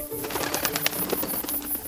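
Two doves fly in at night, a soft coo breaking through a busy flutter of wingbeats, as if the birds are landing. No one speaks.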